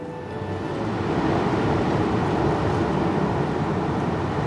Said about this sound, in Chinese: 原来这是风吹动这里松树的声音。所以这声音叫做松涛。